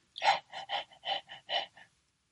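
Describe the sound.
A person imitates a chorus of dogs panting together in summer heat, tongues out, in a hot town: about eight quick, breathy huffs in a steady rhythm, fairly loud, then silence.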